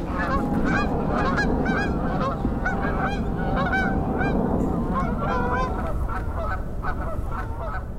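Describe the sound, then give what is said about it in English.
A flock of Canada geese honks repeatedly and overlapping, loud, over a salt marsh of Spartina grass, with a steady rushing background of wind or water beneath the calls. “Ooh, oh, here comes Canada geese.”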